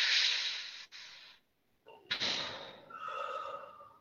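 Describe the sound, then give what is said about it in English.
A deep, noisy breath drawn in, briefly broken, then a longer breathy exhale that turns slightly voiced toward the end, with no speech, as part of a grounding breathing exercise done three times. “And the first thing we do is we just breathe in, and we're going to do it three times because breathing is grounding, right?”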